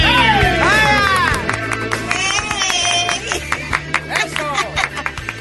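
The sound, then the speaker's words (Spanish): Quick, irregular footsteps thump as a woman runs all around a radio studio amid excited whooping voices and scattered claps, lively and busy from start to finish. “Está corriendo por todo el estudio, ella, Así es que ella se hypes herself up,”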